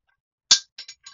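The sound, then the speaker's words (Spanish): A hard plastic speaker cover, left without its screw, falls off as the speaker is turned over and clatters: one sharp, bright impact followed by three lighter rattling bounces, with no voices. “Ahí se cayó la tapa, como pudieron ver, ¿no?”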